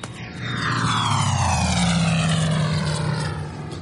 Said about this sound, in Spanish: El caza pasa de largo y asciende.